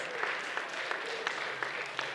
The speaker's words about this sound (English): Hallelujah. Somebody clap that up. Oh my goodness.